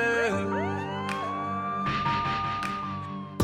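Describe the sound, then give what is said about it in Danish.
A police siren wails loudly, its rising and falling tones sweeping through the whole stretch, with rumbling engine and street noise underneath and a few sharp bursts of noise. “Ja, ja, skal skynde mig væk, for nu kommer pulle”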